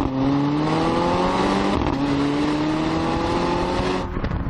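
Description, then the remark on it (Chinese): A loud exhaust note from a car's 2.0T engine (360 hp, 450 Nm) climbs steadily in pitch under acceleration, dips briefly at a gear change, then rises again before roughening near the end; no one speaks. “这虽然是一台 2.0T 的发动机，但是它的排气管的声浪呢，还是非常非常的动听的，特别是在换挡的那一瞬间，那种爆发力。”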